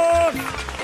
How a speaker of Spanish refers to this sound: No entiendo por qué pones un aplauso cuando digo, ¿por qué? Por lo que viene, por lo que viene,